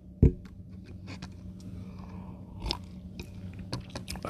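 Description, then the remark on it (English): Mouth sounds of someone sipping Earl Grey tea: a sharp click at the start, then scattered soft slurps, lip smacks and swallows over a low steady hum, with no talking. “If you hear me pause for a little bit, I apologize. I'm sipping on some tea.”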